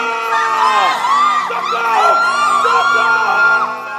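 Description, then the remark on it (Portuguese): A panicked crowd of nightclub customers screams and yells all at once that the club is on fire, many overlapping voices wailing with rising and falling pitch, loud and continuous throughout. “Os clientes gritavam, dizendo que a boate estava pegando fogo. Socorro!”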